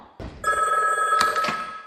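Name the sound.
telephone bell ringing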